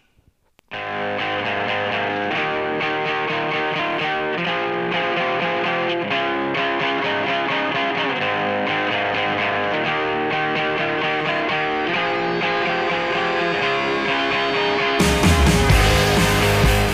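A rock band song plays steadily and loudly, with dense distorted guitars, bass and drums; near the end the sound briefly gets even louder and harsher. No one talks over it.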